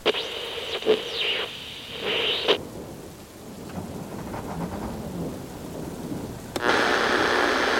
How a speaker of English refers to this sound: In other news, what meteorologists are describing as the storm of the century is in full swing. This monster system is currently bringing the destructive weather to most of the western hemisphere, including record breaking downpours